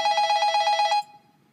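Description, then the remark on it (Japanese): A telephone set on a low cabinet in a corner rings in a rapid trill of regular, evenly spaced pulses for about a second, bright and clear, then stops abruptly, leaving a faint fading tail with no voices. “あ、電話だ”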